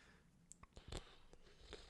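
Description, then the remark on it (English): A cat chewing on a Kleenex tissue: a handful of soft, irregular crunching and clicking bites, fairly quiet, with no talking. “That cat is just eating Kleenex.”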